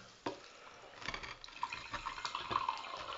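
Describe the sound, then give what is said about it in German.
Sparkling water from a Sodastream pours in a steady, bubbly rush, with crackling fizz and a few bright tinkling notes as the liquid fills a glass. No one speaks. “Äh, Kommt das so aus dem Hahn? Soda, Sodastream.”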